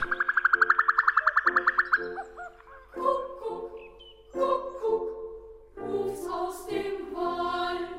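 An excited female common cuckoo gives a loud, rapid, high bubbling trill of about fifteen quick notes, followed by several rougher, harmonic calls that rise and fall, with no talking.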